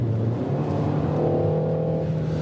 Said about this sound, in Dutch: Je hoort misschien al lekker snerpje uit de uitlaat. Nou ja, dat is natuurlijk leuk.